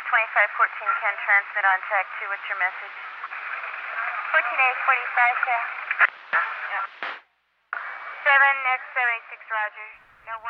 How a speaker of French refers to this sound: Extrait d'un recueil de sons du Hollywood Edge, on peut entendre ces conversations radio de la police Los Angeles et notamment la sirène participant à l'atmosphère gangsta du titre.